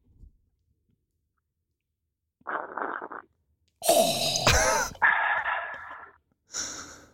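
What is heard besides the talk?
slurping coffee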